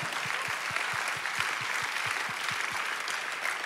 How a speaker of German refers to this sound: Und lasst uns für diesen Aspekt ganz am Anfang Gott einen großartigen Applaus geben, weil das ist das Statement of Ostern.